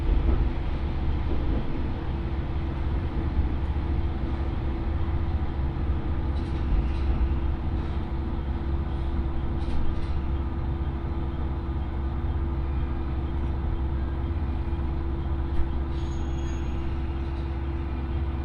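A steady, loud low rumble of a local train on the Ōito Line running from Itoigawa to Hiraiwa, heard from inside the carriage, with continuous mechanical drone and faint clicks and squeaks on top, and no voices.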